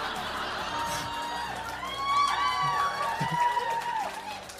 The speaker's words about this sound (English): I can hear the game you're playing.